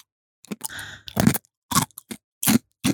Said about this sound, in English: I have a piece of ice in my mouth. It sounds funny. It does.